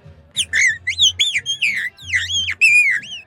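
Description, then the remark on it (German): A rapid run of high, thin whistled notes, sliding up and down in pitch, warbles on for about three seconds, clear, with only a faint low hum beneath. “Die Lärchen sind ganz hoch drum, auf 1500 Meter. Da ist kein tiefer Ton drin.”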